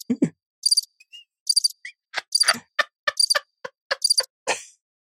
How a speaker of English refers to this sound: You want your crickets? Go ahead.